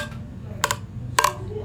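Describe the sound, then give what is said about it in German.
Glass drinking cups knock together twice in a toast, two short, fairly dull clinks about half a second apart, over a low steady background rumble. “Das klingt so nach Plastikbecher.”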